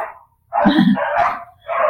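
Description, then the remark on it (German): A neighbours' dog on an evening walk barks a few times in loud bursts in the background, with a short pause between them and no one speaking. “Und äh, ich habe gerade ein, ein Hundegebell im Hintergrund”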